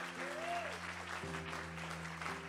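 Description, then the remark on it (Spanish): An audience applauds steadily in a dense wash of clapping, with sustained organ-like chords humming underneath and a brief rising tone early on. “Vamos, dale tu mejor aplauso.”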